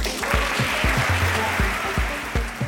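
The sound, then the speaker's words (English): Steady, dense clapping from an audience of about 100 people applauding the first speaker, Amanda Feilding, before her talk on LSD and changes in cerebral blood supply; a continuous wash of hands with a few sharper claps standing out, fairly loud and unbroken from start to finish. “We give her a, a big applause.”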